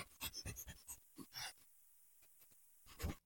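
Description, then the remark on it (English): A person imitates a dog's quick sniffing, with a fast run of short, breathy nasal bursts, a brief pause, a few more sniffs, and one louder huff at the end. “is that your dog in, impression? I thought you were laughing.”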